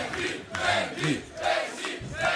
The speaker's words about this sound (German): Applaus Benny, für Benny Hanisch.